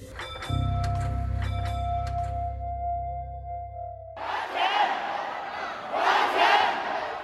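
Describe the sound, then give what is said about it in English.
A low, steady droning tone gives way to a loud protest crowd in mainland China, protesting about money, chanting and shouting together, the massed voices swelling in two strong surges over a few seconds. “This is the sound of a protest in mainland China, but this is not happening on the streets of Beijing.”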